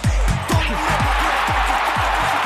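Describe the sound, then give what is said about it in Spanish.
A large audience at the Balones de Oro awards gives a loud, sustained ovation as Manolo Lama presents a prize, with dense applause filling the whole stretch and steady low thumps pulsing rhythmically underneath. “Ahí está la ovación.”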